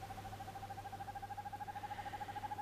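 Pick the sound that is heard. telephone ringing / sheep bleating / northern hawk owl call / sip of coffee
northern hawk owl call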